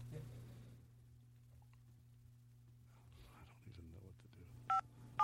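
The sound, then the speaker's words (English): Two short, clear telephone keypad tones beep near the end, one after another, as a phone number is dialed to call someone, over a steady low electrical hum with faint murmured voices in the background. “Okay, we're getting him on the phone right now.”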